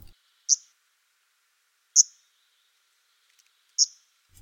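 An Arctic warbler gives three short, sharp call notes spaced about 1.5 seconds apart, each a clear high buzzy tick standing out against an otherwise quiet background.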